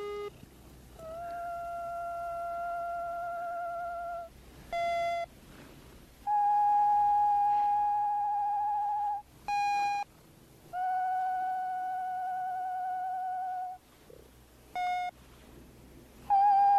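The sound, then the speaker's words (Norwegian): An electronic Gizmo plush toy, from the film Gremlins, sings Gizmo's song: a slow, cooing melody of long held notes broken by short chirpy bursts, clear with no talking over it. “Jeg har jo en sånn gismo her hjemme, og den er sånn at den kan synge den der gismo Så jeg friker ut unga med den fra tid til annen.”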